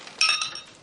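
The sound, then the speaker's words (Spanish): Several glasses clink together in a toast to the bride and groom as everyone raises their glasses. A quick, bright cluster of ringing tones overlaps briefly before fading out, with no voices. “un brindis por los novios. Trini y doña Elvira han intercambiado un guiño de complicidad. Todos levantan las copas.”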